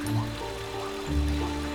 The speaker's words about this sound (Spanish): Cerca de ti intuyes un tranquilo río. Te acercas guiado por el sonido del agua y te sientas justo en su orilla.